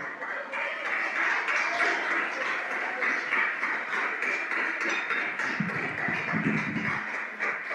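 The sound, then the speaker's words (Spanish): At night, an audience applauds for the Lord Jesus Christ with dense, steady clapping that holds at an even, fairly loud level for several seconds, with a few voices calling out beneath it toward the end. “Y le damos un aplauso al Señor Jesucristo en esta hermosa noche.”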